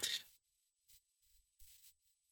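Typewriter typing: a handful of quiet, irregular clacking bursts, the first the loudest, then three softer strikes spaced apart, with no voices.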